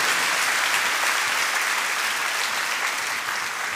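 Steady, dense applause from an audience, many hands clapping at once in a loud, continuous wash of sound that holds evenly for the whole stretch without any voices.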